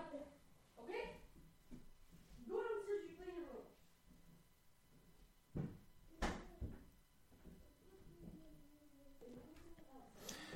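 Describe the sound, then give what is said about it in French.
A door swings shut with a pair of sharp wooden knocks about halfway through, while voices talk softly before and after. “Tu fermes la porte, hein.”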